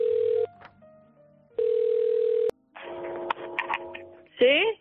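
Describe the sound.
Two long, steady telephone ringback tones sound with a pause between them as a radio station calls a residence, San Antonio Benajever, in the Valencian town of the same name; then a sharp click as the call is answered and a muffled voice comes through the line.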